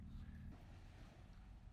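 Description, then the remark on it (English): A dog splashing into a pond, heard as a faint, rumbling wash of water noise that churns for a couple of seconds with no speech over it. “that was a dog, I hope, jumping into uh, the pond.”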